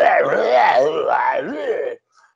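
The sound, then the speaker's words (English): A man's voice imitates a werewolf, letting out a loud, sustained guttural groan with wavering pitch for about two seconds, then cutting off abruptly into silence. “He's out in the woods now, and then there's some poor woman kind of walking through the woods, and he's there like hears is grunting.”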